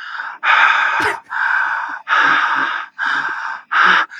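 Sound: voice imitating heavy breathing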